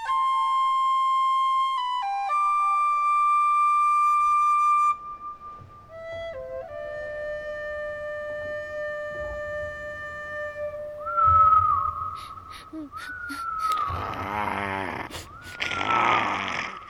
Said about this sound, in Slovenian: Na otoku ptičev je tiho igral na svojo piščalko.